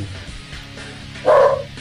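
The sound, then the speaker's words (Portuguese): A single short bark from the speaker's own dog rings out near the end, clear, after a stretch of quiet low background hum. “Temos, aqui temos o meu cachorro conversando sobre...”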